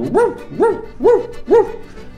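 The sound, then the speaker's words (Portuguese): A person imitates a dog barking, giving four loud, evenly spaced woofs, each a short rising-and-falling yelp with brief pauses between. “Ah, o rato pensou, passou, o cachorro tá aí, o cachorro não é inimigo de rato, posso sair.”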